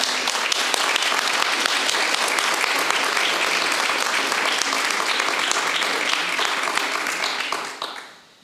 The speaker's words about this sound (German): Jetzt können wir noch einmal alle unsere Gäste herzlich willkommen heißen mit einem Applaus.